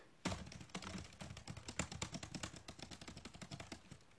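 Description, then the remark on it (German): Rapid, continuous typing on a computer keyboard, a dense stream of sharp clicks and clacks with uneven rhythm, fairly loud and with no voices. “Ähm, ja, ich bin halt gerade wieder, ähm, wie ihr bestimmt schon denkt, weil ich gerade meinen Computer hört.”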